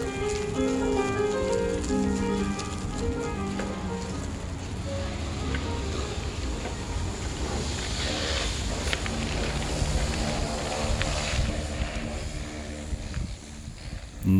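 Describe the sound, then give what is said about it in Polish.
Several instruments, played by different people in different rooms of a music academy, drift out through an open window as sustained tones, clearest at first and then sinking beneath steady wind and street noise as the listener, recording on a phone, moves past. “W różnych salach różni ludzie grają na różnych instrumentach, a ja przejeżdżam tuż obok.”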